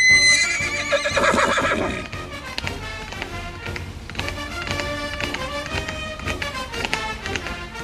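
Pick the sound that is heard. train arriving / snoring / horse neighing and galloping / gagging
horse neighing and galloping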